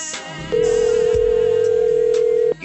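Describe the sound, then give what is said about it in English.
A single steady ringback tone from a My Kiss 1031 radio DJ's outgoing phone call to a listener hums loudly for about two seconds over faint background music, then cuts off abruptly. “I am calling you right now to hook you up with tickets to the State Fair Classic in Dallas”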